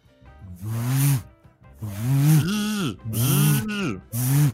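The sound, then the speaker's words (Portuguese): A voice mimics a mobile phone's vibration buzz: four or five loud, raspy humming bursts in an uneven rhythm, with brief gaps between them and no spoken words. “Eu odeio demais o som da vibração do celular.”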